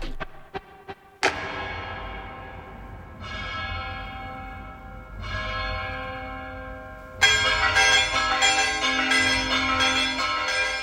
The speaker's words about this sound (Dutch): Dit zijn de kerkklokken die me ochtends vroeg doen ontwaken in het idyllische bergdorpje Villa Grande Strisalli.